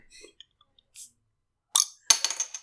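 A bottle is popped open: a few faint taps and rustles, then two sharp, bright metallic clicks of the cap coming off, each trailing into a short, weak fizz.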